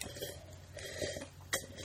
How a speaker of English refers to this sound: uh, I, we're loudly sl- sipping for the microphone. We don't yeah. normally sip that loudly. At least I don't. Um, Stage sipping.